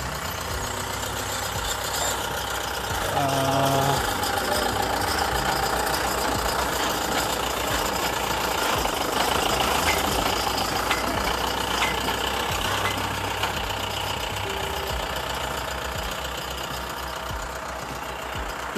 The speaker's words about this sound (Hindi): बहुत सारे सामने ट्रक पार हुआ मेरे समझे तो ट्रक ट्रक पार हो रहा था इतना आवाज़ उसके लिए आया सो आपको फील मिलेगा कि मैं सही मैं सुबह सुबह चल रहा हूँ मैं रोड पे चल रहा हूँ